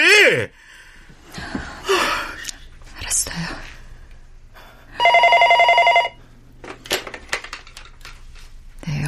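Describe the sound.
A telephone rings in one loud, buzzy burst lasting about a second, set among hushed, whispery voices and breathy sounds before and after.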